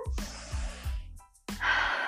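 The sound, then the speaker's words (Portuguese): A deep breath drawn in through the nose and mouth, airy and breathy, coming in a few noisy pulses with a brief pause before a stronger final intake. “E agora eu vou pedir que você tome uma respiração bem profunda”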